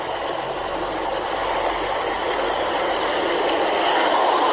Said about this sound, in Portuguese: Vocês desculpam o barulho aí, o vento, eu tô nas margens da BR aqui.